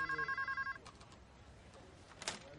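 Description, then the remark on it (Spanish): A telephone rings at a police station desk with a fast, warbling electronic trill of about nine rapid pulses, then cuts off abruptly as it is picked up, leaving soft handling noises and faint shuffles. “Coge el teléfono.”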